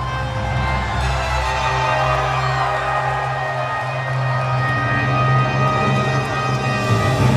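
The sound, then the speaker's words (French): A large wrestling arena crowd in Charlotte, North Carolina roars and cheers as a wrestler wins the title in her hometown in 2017, a steady, loud wall of sound that stays dense and sustained throughout, swelling slightly near the end. “Tu sais, écoute la foule, tu regardes ça, Là, c'est plus de la lutte, c'est juste des émotions pures et brutes.”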